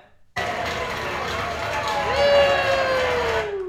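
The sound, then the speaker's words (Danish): A small crowd of about 50 people claps for John McTiernan for a few seconds. The dense patter of many hands starts abruptly, and a single whistle slides downward in pitch toward the end. “Det var 50 mennesker, der klappede.”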